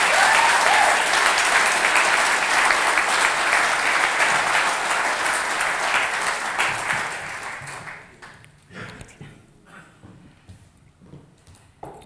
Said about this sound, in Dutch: Dank jullie wel. Wil je nog een eh, heel warm applaus geven?